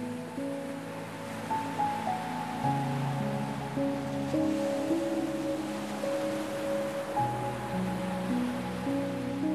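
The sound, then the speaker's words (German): A soft, steady wash of ocean waves rolls evenly onto a beach and draws back, continuous, blended with sustained, gentle ambient music tones and no voices. “Dein Blick ruht auf den Wellen, die gleichmäßig zum Strand gespürt werden und sich wieder zurückziehen.”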